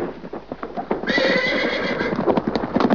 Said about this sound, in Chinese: 突然，他们听到后方传来了马蹄的声音。